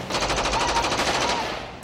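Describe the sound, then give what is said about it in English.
A rapid, sustained burst of automatic gunfire at night, loud sharp reports fired in quick regular succession for over a second before trailing off. No voices are heard. “30 seconds later, the entire night just erupts into automatic gunfire.”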